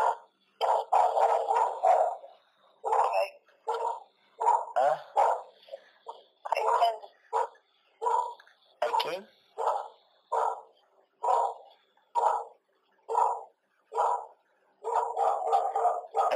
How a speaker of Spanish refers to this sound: ¿Por qué los perros ladran